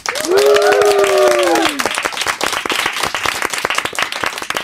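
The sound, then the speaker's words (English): A live studio audience applauds with dense, steady clapping throughout, while cheering voices rise over it in the first couple of seconds before settling into continued applause. “yes, that is not our clap track. We have real people in the studio,”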